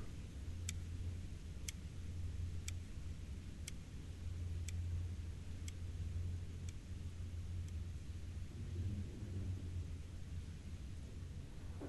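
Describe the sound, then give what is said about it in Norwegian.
Real recording from a quiet cell block of Oslo Prison, Norway, at night after lock-in: a steady low mechanical hum fills the space while a faint, regular ticking sounds about once per second, fading out. No voices. “Ja, det lyden eh, her, eller lyden ned, det var jo faktisk eh, helt ekte opptak fra Oslo fengsel etter innlåsing.”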